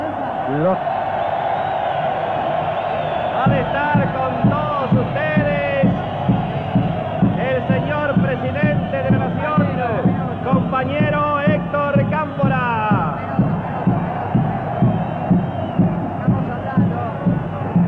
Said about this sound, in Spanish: través de los parlantes de la Casa de Gobierno, ha confirmado que el presidente Cámpora va a dirigirse al pueblo congregado aquí frente a la Casa de Gobierno para dirigir su primer mensaje como presidente en ejercicio.